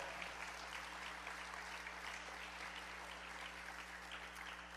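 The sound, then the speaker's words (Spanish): An audience at a church service claps steadily throughout in applause for the Lord. It is a dense, sustained wash of applause at an even, moderate level, with a low hum underneath and no clear speech. “Dar un aplauso al Señor, Dios es bueno.”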